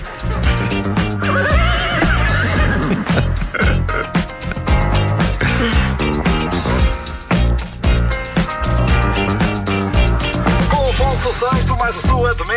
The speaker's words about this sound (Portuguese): De repente aparece um cavalo em vez do refrão.